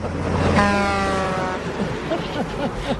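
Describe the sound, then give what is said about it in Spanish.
A single steady car horn blast lasting about a second rings out clearly over a noisy background, then fades as indistinct voices murmur. “Póngame otra vez el pito”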